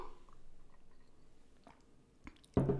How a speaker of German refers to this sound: Ich muss mal ganz kurz einen Schluck Wasser trinken